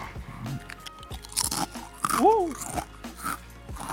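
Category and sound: food or drink, crunching potato chips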